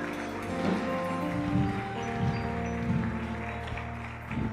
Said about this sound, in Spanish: El aplauso, déselo a Jesucristo bien fuerte.